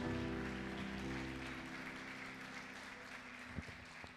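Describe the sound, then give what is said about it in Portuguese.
An audience at a church service applauds the word of God after a Bible reading, with steady, dense clapping that gradually thins out, mixed with sustained low musical tones. “Beija a sua Bíblia e dê uma salva de palmas à palavra de Deus.”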